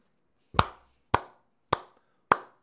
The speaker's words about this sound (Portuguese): Palmas para vocês, cara. Palmas para vocês.